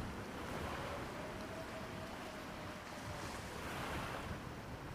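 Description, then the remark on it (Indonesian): Ocean waves crash and wash steadily against the rocks below a cliff, a continuous roaring surf with swelling surges, while gusts of wind rush across the microphone. No voices are present. “Dari bawah tebing, terdengar suara ombak pecah dan berdebur di permukaan batu.”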